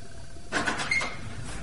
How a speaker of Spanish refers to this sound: De repente, alguien llama a la puerta.